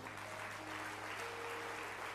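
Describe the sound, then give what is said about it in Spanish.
An audience claps their hands for God in steady, dense applause that fills the whole clip, with a low hum running underneath and no voices standing out. “Dale fuerte palmas a Dios.”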